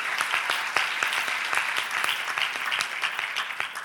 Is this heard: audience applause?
yes